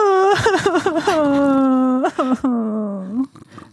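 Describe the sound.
A person voices a loud, drawn-out wail in imitation of bitter crying, as a sound effect for a story being read aloud: quick sobbing catches at first, then long quavering whimpers that trail off near the end.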